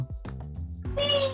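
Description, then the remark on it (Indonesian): A pet cat meows, a few short rising-and-falling calls ending in one longer, strained, higher-pitched meow. Moderately loud, with no talking over it. “Nah, ini suara anak gue kedengaran kan”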